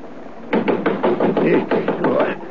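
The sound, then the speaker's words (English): A quick, steady run of about a dozen sharp raps on a window, fairly loud, lasting around two seconds with no voices. “There came a rapping on the window”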